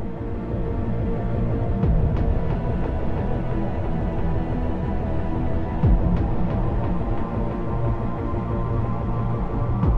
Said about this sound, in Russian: Здесь царит готика в полный рост. Приправленная голосовыми сэмплами, грозными электронными басами и нарастающим синтетическим гулом.